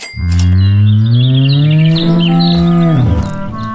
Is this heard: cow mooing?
yes